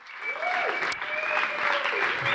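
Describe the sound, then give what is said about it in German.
Sustained applause from an audience welcoming two guests onto the stage, a dense wash of many hands clapping at steady volume throughout, with a faint tonal hum running underneath. “Gerne einen herzlichen Applaus,”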